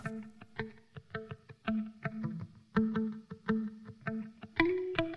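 Smooth jazz with a saxophone playing sustained, mid-pitched melodic notes over a steady, punchy rhythmic backing of regular beats, with no voices.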